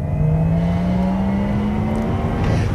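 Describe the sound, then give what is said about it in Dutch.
The synthetic Electric Sport Sound of a Porsche Taycan Turbo electric car rises slowly in pitch as the car accelerates, a loud, smooth whirring hum with a faint layered tone above it and no voices. “Nee, dit is de Porsche Taycan. Maar hij klinkt wel een beetje als UVO. Dit is de Electric Sport Sound die je uit of aan kan zetten.”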